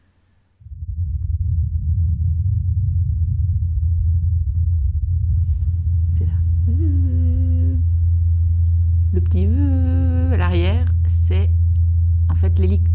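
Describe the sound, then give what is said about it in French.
A steady, low droning hum of the Mars helicopter's rotors during one of its flights on Mars, faint and distant, quite far from the Perseverance rover whose onboard instrument recorded it, runs almost unbroken under windy rumble, with a few brief higher tonal sweeps rising and falling over it midway. “son de l'hélicoptère euh, qui est assez loin hein, euh, de Persévérance et qui est entendu pendant un de ses vols.”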